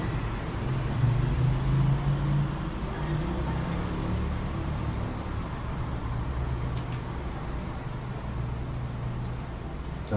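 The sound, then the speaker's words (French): A steady, continuous motor hum with a low droning tone and a broad noisy rumble, holding an even loudness throughout with no voices present. “rendement du moteur est euh, plaisant pour vous ou déplaisant, ni l'un ni l'autre.”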